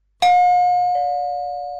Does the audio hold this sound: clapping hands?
no